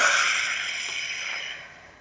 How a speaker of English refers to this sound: Take a deep breath, fill in your belly. Breathing out through your mouth like through a straw.